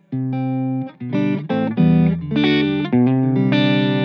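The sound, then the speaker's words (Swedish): Chords strummed on a guitar with old strings and a lot of reverb, loud, ringing out in several bursts with a slightly dull, muted top end and no voices. “Den har inte riktigt det här klirret i, i, ehm, i diskanten för att det är gamla, sträng, gamla ja, strängar.”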